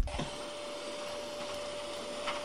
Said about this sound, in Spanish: No, ver, no me relaja esa weá nunca. ¿Cómo te va a relajar un sonido de una secadora, weá? No me podría relajar, ¿cómo me va a relajar, weá?